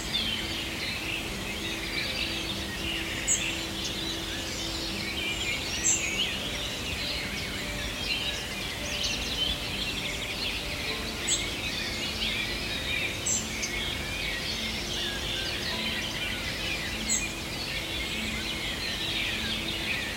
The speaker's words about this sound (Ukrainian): прислала мені запис е, пташок, який вона зробила десь далеко-далеко в Буковині, в місті, яке мало хто знає, де майже немає цивілізації. Я хочу, щоб ми їх послухали, щоб вийшли цей настрій цього ранкового, ранкового сходу сонця.